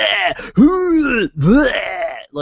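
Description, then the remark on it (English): A voice imitates retching with loud, strained, gurgling groans, two long heaving bursts framed by shorter choked noises, forceful, with no actual words spoken; it is a greeting given to an insect-like alien species. “it just sounds like a bunch of vomiting sounds, but he does it successfully, and they're very excited.”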